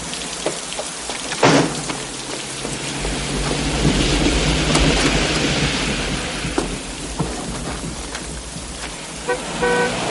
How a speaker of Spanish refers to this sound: A través de los cristales mojados y empañados por la lluvia, ve la camioneta de Robert aparcada en sentido contrario al otro lado de la calle.